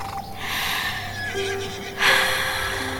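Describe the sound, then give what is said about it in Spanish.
A horse whinnies loudly as someone approaches and strokes it, a long wavering neigh that rises and breaks into a sharper burst near the end, with no voices present. “Ese momento en que te acercas a un caballo, lo acaricias y...”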